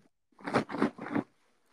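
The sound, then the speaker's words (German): Three quick bursts of close, crinkly rustling as a pillow is squeezed and shaken right in front of the microphone, each lasting a fraction of a second, with no talking. “Äh, raschel damit mal so richtig schön vor Mikrofon.”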